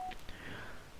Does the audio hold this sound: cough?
no